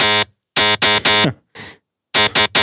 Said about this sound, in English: And it, it's being FM'd by like a really high harmonic mess.